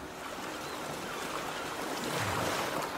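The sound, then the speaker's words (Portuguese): A steady wash of sea surf with a soft, fresh sea breeze at a gulf beside a tropical jungle in the morning, the waves swelling slightly louder toward the end. No voices, just continuous ocean noise at moderate volume. “A brisa fresca do mar era revigorante e sentia meus sentidos aguçados enquanto absorvia o novo ambiente.”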